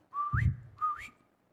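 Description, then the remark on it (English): A person tries to whistle, producing two short, breathy rising whistle notes, each starting thin and sliding upward with a rush of air underneath. “I can't whistle this morning.”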